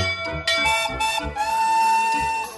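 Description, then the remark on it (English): A big blue fire engine with two water cannons: its bell clangs a few times in quick succession, then its whistle sounds a loud, steady, sustained tone that holds for over a second before cutting off. No one speaks. “She has both a whistle and a bell, and they sound like this.”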